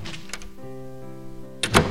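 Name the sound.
door slammed shut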